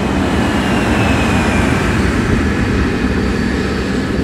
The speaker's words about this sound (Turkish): Ver ayır bakayım jet motoruna. Kopup gidelim yeter gari ya. Hadi bakayım göreyim çapını hadi yavrum. Gaz diyorum kaptan. Ver gaz.